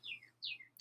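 A bird outside an open kitchen window gives two quick, descending chirps in succession, fairly faint, while it rains, over a low steady hum, followed by a brief noisy burst; no one speaks.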